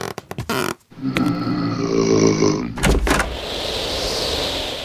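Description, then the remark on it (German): A few sharp clicks, then a long creaking, groaning sound as a house door swings open to let in a visitor who rang the doorbell, ending in a couple of knocks and a soft steady rush of noise. “Schaust du mal bitte nach der Tür.”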